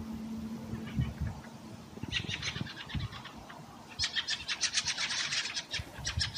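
Harsh, chattering chack calls from a flock of fieldfares, overlapping in loud bursts of rapid, rasping notes with short pauses between.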